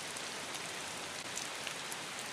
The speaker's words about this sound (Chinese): 东京八摄氏度，阴雨，不见光日，听得见雨水打在深色水泥石板上的声音，清脆，又让人觉得心神不定。